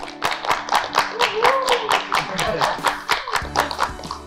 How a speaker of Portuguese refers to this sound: E, enfim, vamos finalizar aqui com, com uma salva de palmas para a meninas, gente.